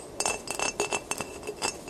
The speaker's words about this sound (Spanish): sonido era el de un dedo golpeando el vidrio. Otra vez.